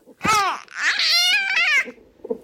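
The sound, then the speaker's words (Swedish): An infant boy babbles and coos in drawn-out, rising and falling vocal sounds, fairly loud, trailing off into a few softer murmurs at the end. “Och numera låter han mer så här.”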